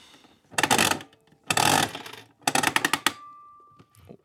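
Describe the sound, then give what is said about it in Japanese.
Coins drop into a capsule toy machine in three quick metallic bursts of clinking and rattling, followed by a faint steady electronic tone that lingers about a second; the coins are swallowed without a capsule coming out. No one speaks. “多分その音はやられましたかやられましたま吸い込まれましたねおよかった明最近高いガシャ多いですもんね300円とか500円とか”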